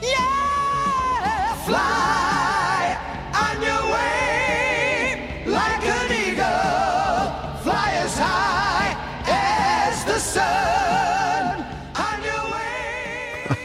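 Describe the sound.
An isolated, multitracked vocal: one male singer performs all the voices himself, singing loud, energetic lines stacked in layered harmonies with no instruments, phrases surging and breaking off with brief gaps, full throughout.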